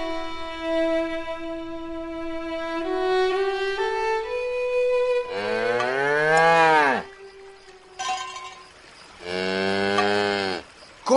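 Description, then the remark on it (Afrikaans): A cow moos loudly: a long, drawn-out low call, then two more rising-and-falling moos separated by short pauses, with no talking. “Net stil staan my koei.”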